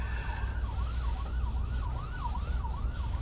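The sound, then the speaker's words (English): An ambulance siren wails in a steady rising-and-falling pattern over the low rumble of city traffic, moderately loud and continuous throughout, with no one talking. “Oh, it's an ambulance. Can you hear that?”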